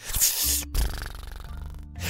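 snoring

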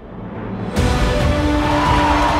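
racing car engine

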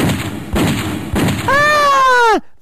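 gunshots

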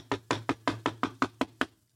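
knocking on a door

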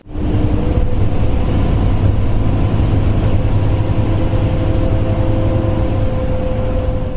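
bus driving

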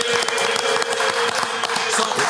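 audience applause

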